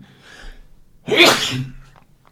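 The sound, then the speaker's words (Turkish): A single sharp, loud sneeze bursts out after a brief quiet inhale, its bright noisy blast fading over about half a second, followed by a faint click. “Çok yaşa.”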